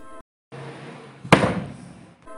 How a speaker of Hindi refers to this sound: पर्दे फिर से बंद हो गए और दरवाजा भी जोर से बंद हो गया